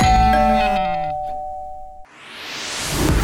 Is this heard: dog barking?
no